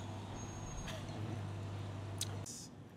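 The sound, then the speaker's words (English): A delivery truck's engine rumbles loudly in a steady low drone as the truck pulls up, a brief hiss of air brakes sounds, then the engine cuts off, leaving quieter background. “So, let's, uh, no let's pause for just a sec because I know this guy's going to pull up and he's real loud. him to turn his truck off.”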